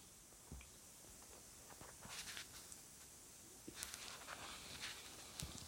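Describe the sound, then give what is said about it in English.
Heavy footsteps of a moving stone god statue strike a stone surface in a shrine, half a dozen hard, sharp clacks at a slow, uneven pace, fairly faint against a quiet background with no one speaking. “Louder and louder the stony steps sound as the echoing shine as Carl Claw's blood runs cold.”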